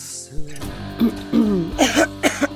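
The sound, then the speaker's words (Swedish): A few short, nervous throat-clearing coughs in quick succession, fairly loud, with brief voiced rasps between them and no speech. “Vad är den här hostan för någonting egentligen?”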